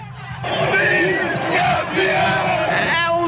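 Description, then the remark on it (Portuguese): A large stadium crowd roars and chants in celebration of the two-time Paraná state champions after the final whistle of a 3-3 title match, a loud, sustained wall of cheering voices with rising shouts that swell throughout. “E muita festa do bicampeão paranaense depois do apito final.”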